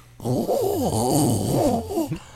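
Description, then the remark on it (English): A person's voice imitates a sprint car engine with a sustained, buzzing, rasping drone for about two seconds, its pitch rising and falling like revving. The imitation is fairly loud. “well, that's not a very good sprint car, but you know, that's a terrible sprint car.”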